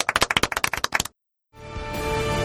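A brisk burst of applause: rapid, sharp, evenly spaced claps for about a second, then a brief silence before steady music fades in.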